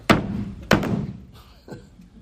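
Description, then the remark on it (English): Heavy, booming knocks pound on a door, two loud blows about half a second apart, then a softer third after a pause. Each thud rings out briefly, with no one talking. “When you read Matthew's account, it's like God came to Joseph's door and he didn't just, Joseph, are you in there? No, it's more like,”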